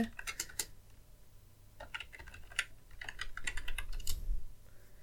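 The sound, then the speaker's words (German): Quick, irregular clicks of typing on a computer keyboard, coming in short bursts with brief pauses between them, with a faint low hum underneath. “Jetzt muss ich mal gerade tippen.”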